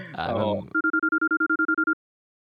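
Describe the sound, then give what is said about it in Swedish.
After a moment of someone talking, a telephone rings from a Jägermeister shot glass with a quick electronic trill of about a dozen evenly spaced beeps, loud, then stops. “Oh, vänta, nu, nu ringer det i Jägermeister shotglaset.”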